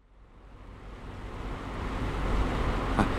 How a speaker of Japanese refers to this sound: 今、車が動き出しました。えそして、まもなく目の前の路面が氷に覆われたアイスバーンに変わります。